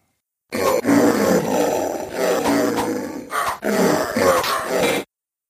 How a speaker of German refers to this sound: Hier ist das Duell gegen ein Rudel Trolle.